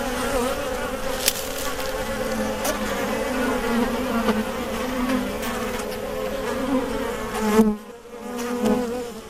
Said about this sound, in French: Donc voilà, une ruche, c'est un euh, minimum 30 degrés. Elle la chauffe à 30 degrés tout, le temps, quoi qu'il se passe. Donc il faut qu'il y ait quand même un, minimum, un minimum d'abeilles là-dedans.